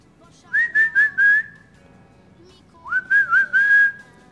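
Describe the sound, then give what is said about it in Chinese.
A cricket's chirping in a barn at night, imitated by a whistle: two bursts of four quick, warbling mid-pitched notes, separated by a short pause, clear and fairly loud with no talking. “是一只蟋蟀，它也许是在叫它的伙伴儿，要和伙伴儿比唱歌呢。”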